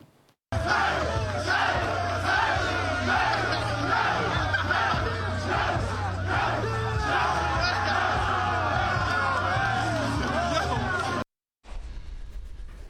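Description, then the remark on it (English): John Harbaugh and the Ravens team cheering and shouting together in the locker room after a win over the Dolphins clinched the AFC's top seed, loud and sustained, with whoops and overlapping voices over a steady thumping bass beat, cutting off abruptly near the end. “Here's John Harbaugh celebrating with his team in the locker room afterwards.”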